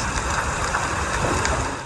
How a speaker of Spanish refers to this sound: Es el sonido que provocan las llamas y el terror que se vive por un feroz incendio forestal en California que se expandió durante la madrugada Miles de hectáreas se consumen mientras siguen haciendo evacuaciones.